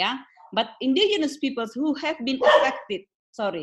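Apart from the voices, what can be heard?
dog barking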